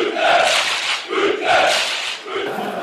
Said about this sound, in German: Denn dieses Mal, ihr hört es vielleicht im Hintergrund, sind wir im altehrwürdigen Grünwalder Stadion auch genannt, der Hermann-Gerlan-Kampfbahn.